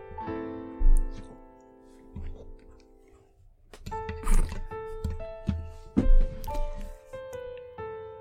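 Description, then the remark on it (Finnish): An angry cat yowls in long, wavering, drawn-out cries, one extended wail followed by a series of harsher, louder growling yowls with brief pauses, prominent. “No nyt kuuluu. Onpa kiukkunen katti.”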